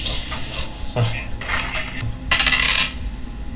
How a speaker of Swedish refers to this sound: För jävla tärning. det här är en sexa. Det är en sexa.